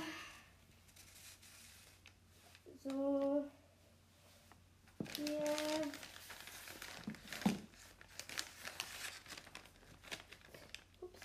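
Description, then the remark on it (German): Crinkling and rustling of wrapping paper as string is tied tightly around a wrapped gift and a bit of it is cut off with scissors, in uneven bursts, with a couple of short vocal tones and a sharp tap near the middle. “ich binde das fest mit diesem Strick. So. Bisschen abschneiden.”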